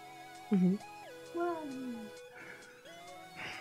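A cat meows twice: a short, loud yowl, then a longer meow that slides downward. A steady tonal hum runs underneath throughout.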